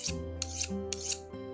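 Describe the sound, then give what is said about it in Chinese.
A wild boar named Ali grinds its teeth in a few harsh, rasping scrapes, with sharp gritty bursts standing out over a steady low droning tone. No voices are heard. “狐狸阿三就说：“这一定是山猪阿力在磨牙。”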